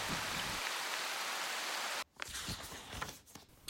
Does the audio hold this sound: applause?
no